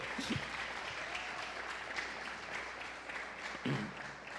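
A church audience claps steadily and continuously for the Lord during a sermon, a dense wash of many hands applauding together at moderate loudness for several seconds, with no one speaking over it.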